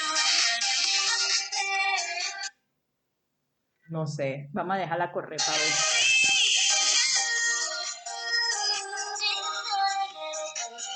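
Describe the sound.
A bright, busy K-pop song by a girl group plays loudly, cutting out briefly while a man speaks over a low hum, then the music resumes and continues to the end.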